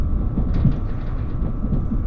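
Steady low rumble of the Relay Kamome No. 3 train rolling along the rails from Hakata toward Kōhoku, Japan, a dense continuous drone heard from inside with faint higher rattles flickering above it; no talking.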